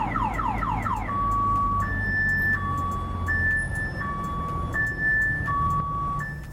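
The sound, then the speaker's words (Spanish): A loud car alarm blares, starting with rapid descending whoops, then switching to a steady two-tone siren alternating high and low pitches in a regular rhythm, with traffic rumble underneath. “se van a topar con un comercial en particular que recuerdo acerca de cómo una alarma para coches que en vez de hacer ese ruido que todo el mundo conoce que no sirve para absolutamente nada, este ruido”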